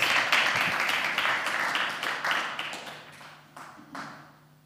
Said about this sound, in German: Ja, ein Applaus